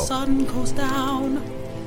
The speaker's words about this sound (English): Um, uh, the rain is is it's still sprinkling. It's not it's it's not very heavy,